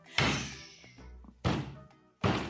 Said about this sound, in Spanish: El dios Júpiter se levantó enojado y con su bastón dio un golpe en el suelo que retumbó como un trueno.